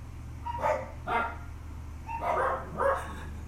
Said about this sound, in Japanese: まあそれに伴いねうちのワンコたちが吠え吠えまくっているというそんな状況でおびっくりした